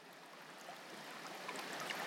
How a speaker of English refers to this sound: And finally, through it all comes the roar of water in the back corner of the garden. The tumbling of water undercuts everything,